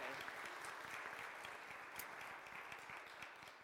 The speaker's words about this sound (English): We may clap, it's okay.